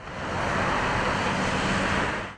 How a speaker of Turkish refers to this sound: Pazarcı esnafı manavlar İstanbul'un sebze ve meyve ihtiyacının karşılandığı hale koştu. Yoğunluk gece yarısı trafiğe dönüştü. Oluşan kuyruk böyle görüntülendi.